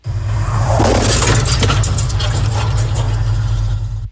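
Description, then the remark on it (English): A pickup truck crashes into the side of an Ohio State Highway Patrol cruiser during a traffic stop on I-475 in Lucas County, Ohio: loud crunching metal and shattering glass over a heavy, steady low engine rumble. The harsh impact noise lasts several seconds, dense. “That's how it sounded as the truck hit the side of the cruiser on I 475 in Lucas County.”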